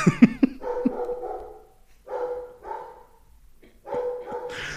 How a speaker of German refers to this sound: Ich bin halt tatsächlich gerade so ein bisschen ruhiger geworden, weil mein Hund sehr viel bellt gerade. Und wir kennen das ja, wenn mein Hund bellt, habe ich immer ein bisschen Sorge